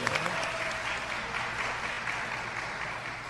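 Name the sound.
applause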